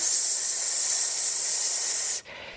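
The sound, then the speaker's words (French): A steady, breathy hiss of air pushed out through pursed lips while exhaling in a breathing exercise, held for about two seconds before stopping abruptly, fairly loud with no talking. “On peut faire un petit exercice, par exemple, c'est j'inspire, et quand j'expire, je fais comme un, un cours de chant, c'est je fais comme ça avec les, dans les lèvres, et quand je fais ce bruit”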